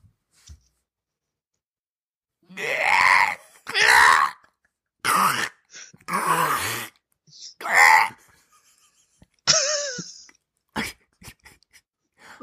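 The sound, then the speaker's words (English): A person imitates a velociraptor screech with a string of loud, strained, rasping shrieks and gurgling cries, six or seven bursts separated by short silences, ending in fainter breathy sputters. “it's a strangling raptor whose last words were iTunes five stars.”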